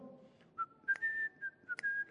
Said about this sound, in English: Oh, whistling in the church.